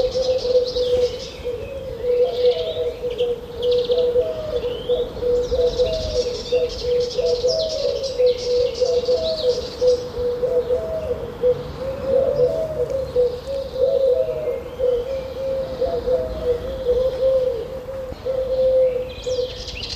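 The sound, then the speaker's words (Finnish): A Eurasian collared dove coos over and over in a steady, low rhythm on Crete on 21 April, while other small birds chirp and twitter busily in the background. No one speaks. “Että se Turkin kyyhkyn piti tulla ja lisääntyä”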